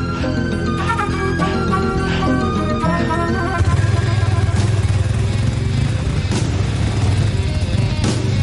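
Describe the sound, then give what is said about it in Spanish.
Several motorcycles ridden by neo-Nazis appear over sand dunes, their engines roaring together in a loud, continuous growl that thickens about halfway through, with occasional bangs and crunches cutting through the noise. No one speaks. “De pronto aparecen por las dunas los neonazis en sus motocicletas.”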